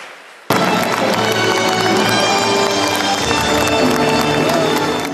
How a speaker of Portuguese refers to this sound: Aplausos e emoção no momento da despedida.